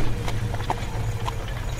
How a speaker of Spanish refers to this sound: Una brisa helada levanta las hojas secas de la calle y poco a poco se acerca un carruaje tirado por dos caballos.